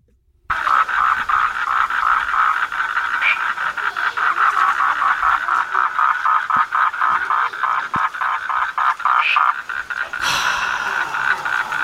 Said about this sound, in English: We've got a bit of a multimedia, a multimedia one so I'm going to play you the call of one of these toads. And you've got to tell me which one it is.